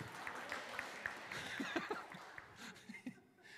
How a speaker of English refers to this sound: It says here in Acts chapter 2, 41, if you want to clap now, let's say, yeah.